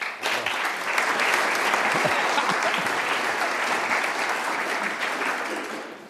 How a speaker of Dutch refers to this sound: Dames en heren, groot applaus.